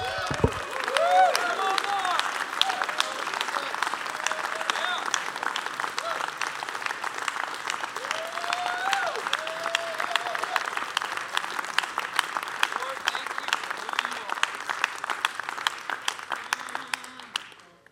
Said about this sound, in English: Let's just give God a few minutes of just like clapping, cheering him on for who he is. Come on.